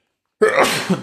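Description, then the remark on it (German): A single sharp, loud sneeze bursts out after a moment of silence, with a brief voiced tail trailing off at the end. “ähm, Gesundheit.”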